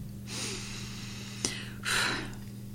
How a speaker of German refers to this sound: Das heißt, wenn ich jetzt Angst habe, dann kann ich doch einfach mal durchatmen,